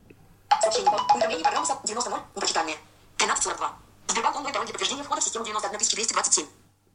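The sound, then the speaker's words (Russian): A phone ringtone plays for an incoming notification with a password during a system login, a bright, busy melody in four or five bursts separated by short pauses, fairly loud, with a faint steady low hum underneath. “Я пытаюсь войти в систему, и мне присылают уведомление с паролем.”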